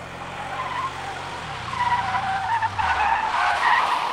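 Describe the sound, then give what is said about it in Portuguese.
A car skids to a stop, tires screeching in a sustained squeal over a low engine rumble that drops in pitch as the vehicle slows, loud, with no talking. “Naquele instante, um carro parou quase vizinho ao meu.”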